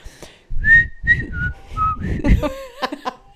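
Someone whistles a short pop-style melody up close, a run of clear sustained notes stepping up and down in pitch, with breathy noise underneath and no talking.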